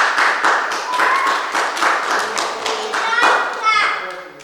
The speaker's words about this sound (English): Amen. I think that deserves a clap. Can we have a clap?